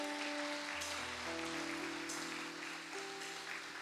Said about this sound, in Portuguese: a glória não é sua, a glória é de Deus. Você pode aplaudir a Ele né, por isso nessa noite?